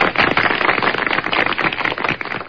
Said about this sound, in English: I couldn't find any triumphant music, but we'll uh, we'll give you some applause if I can find it.